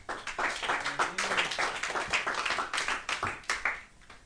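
A crowd of people clapping their hands for the Lord after a prayer, a dense, steady burst of overlapping claps for several seconds, loud, with a few voices faintly mixed in.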